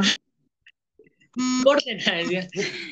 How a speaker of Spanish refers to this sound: Ay, me, no me paran llegar las notificaciones de Facebook.